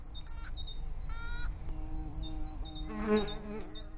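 A wild bee buzzes while boring into deadwood, with short bursts of bright, rasping buzz that come and go over a steady low drone. Faint chirps sound in the background, and no one speaks.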